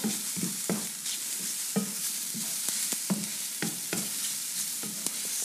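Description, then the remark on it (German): Mushrooms and onion seasoned with salt and pepper sizzle steadily in a frying pan while a utensil stirs through them, making repeated scraping and clinking strokes at an irregular rhythm, fairly loud, with no talking. “Und jetzt rühren wir das mal um, die gewürzte Mischung.”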